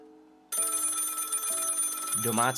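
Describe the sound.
An old-fashioned telephone bell rings loudly and continuously with a harsh metallic clatter, preceded by a soft low hum; a voice briefly cuts in near the end. It is a phone call received by a detective on 13 December 1934.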